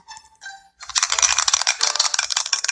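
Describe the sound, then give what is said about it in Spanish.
A brief pair of tonal notes, then a dense, loud clattering rattle of a die being shaken and tumbling for almost two seconds in a board game, with rapid irregular clicks and no talking; the die comes up four. “el dado salió. cuatro.”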